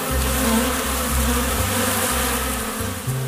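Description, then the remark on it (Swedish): A dense, continuous buzzing of many honeybees at the entrance of a nucleus colony hive, recorded with the microphone at arm's length, steady and loud with shifting low hums as individual bees pass near, no voices present. “Man får ju passa på att spela in lite ljud när bina är ute.”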